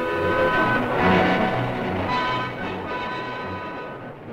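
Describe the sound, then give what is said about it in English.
A steam locomotive, its red-hot firebox turning water to steam to drive the wheels, rumbles steadily along the rails on a dead run with a dense, continuous roar, layered with sustained tonal whines and hissing, staying loud before easing slightly toward the end. “And this is the way she did it, with a red-hot firebox turning water to steam and steam into power to drive wheel over steel on a dead run down the right-of-way to anywhere.”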